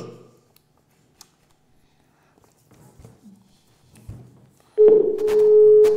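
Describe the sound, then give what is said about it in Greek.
A steady, loud telephone line tone comes in abruptly near the end and holds, after a few seconds of quiet with faint rustling and murmured sounds. “Ωραίο αυτό το τηλέφωνο, ωραίο σε σεφτέ.”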